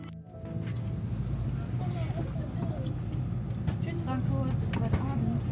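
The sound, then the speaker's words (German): Steady, continuous low rumble of a train carriage in motion on a train to Munich, with indistinct voices murmuring faintly in the background throughout, among families with children and hen parties. “Ich sitze im Zug nach München.”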